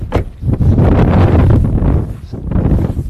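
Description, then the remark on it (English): Strong wind roars and buffets in a steady, heavy rush on an exposed ridge next to a steep, grassy decline, swelling and easing slightly over a few seconds, with no voices. “We parked the rental car on a windy ridge next to a steep and grassy decline that suddenly drops in the distance.”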